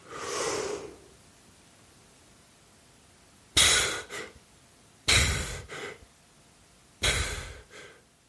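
A long, deep breath drawn in, then three sharp bursts of recovery breathing as on coming up to the water's surface, each a quick forceful exhale cut off by a hurried gasp of an inhale, with no talking.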